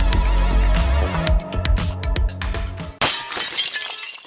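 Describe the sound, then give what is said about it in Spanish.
Glass shatters loudly with a cascade of breaking, clinking shards, followed by a bright, scattered tinkle of pieces settling, with no voices. “Se rompió ahora, se repara ya.”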